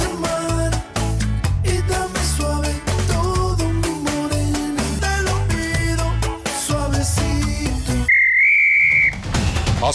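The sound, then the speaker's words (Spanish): Busy upbeat music plays, then cuts out for a referee's final whistle: one long, shrill, steady blast lasting over a second, loud and clear over a low rumble. “sonado el pitazo final de este podcast.”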